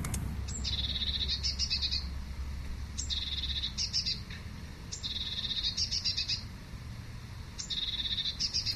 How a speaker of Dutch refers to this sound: Zo, pimpelmees. Nou ja, pimpelmees is een heel mooi, heel mooi vogeltje. Normaal klinkt de pimpelmees zo.